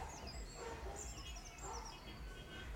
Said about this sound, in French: J'entends d'ici les bruits de la ville, les voitures, mais aussi des chiens qui aboient, des milliers d'oiseaux, de la musique.